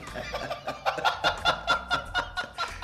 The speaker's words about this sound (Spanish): Se salieron unos guajolotes.